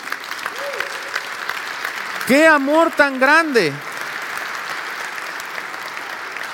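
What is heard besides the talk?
audience applause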